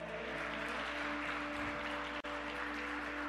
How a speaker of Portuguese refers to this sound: Se quiser, pode aplaudir o Senhor.